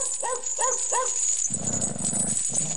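A yellow wolfdog called Huangdi (Emperor) barks and jumps while straining on an iron chain in a brick-walled courtyard in a village on the outskirts of Luoyang: three quick, high, yelping barks in an even rhythm, then a rough, lower, rattling sound that continues to the end.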